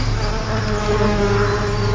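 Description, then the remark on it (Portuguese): A dense, steady buzzing of many bees swarming around a small beehive, a continuous drone with harmonic layers that holds level for the whole moment, with no voices. “Bibo tem uma casinha de abelhas.”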